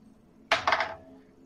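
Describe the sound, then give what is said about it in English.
Dice clatter across a tabletop, a quick rattling burst of several hard little bounces lasting about half a second before settling into quiet. “Then I'm gonna try not to drop my dice.”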